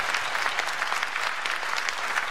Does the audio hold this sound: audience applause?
yes